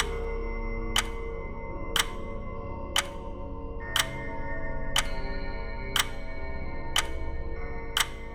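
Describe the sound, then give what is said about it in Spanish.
A clock ticks steadily, about once per second, each tick a crisp click standing out over a low, dim background hum. No one speaks. “Estaba sentado escuchando, escuchando como había hecho yo mismo noche tras noche, escuchando los relojes de la muerte en la pared.”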